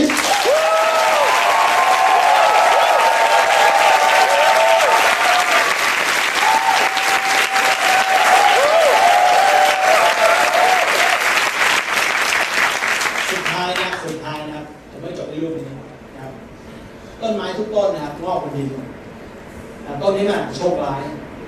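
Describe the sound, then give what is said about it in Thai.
A crowd claps loudly and steadily for about fourteen seconds, with a few sustained tonal cheers riding over the clatter, before the applause stops and a man starts talking. “ได้ปกมือคนที่เป็นเพชรหน่อย”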